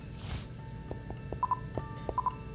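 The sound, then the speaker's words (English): A phone number being dialed: a quick series of short, mid-pitched keypad beeps at slightly uneven intervals, ringing out clearly over a low background hum after a brief soft rustle. “I'm calling Connell.”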